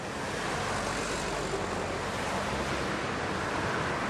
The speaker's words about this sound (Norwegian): Trafikken går tett mellom skyskraperne her i Doha, hovedstaden i oljelandet Qatar.